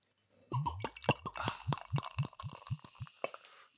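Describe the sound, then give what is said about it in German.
Beer glugs out of a bottle into a glass, fairly loud, in a quick run of rhythmic gurgles with a fizzy hiss, lasting about three seconds with no talking. “Dann. Schenken wir mal ein.”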